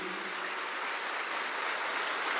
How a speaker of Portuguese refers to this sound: Gente, então, Queria agora que vocês aplaudissem esse ministério e esses adolescentes que vieram hoje aqui.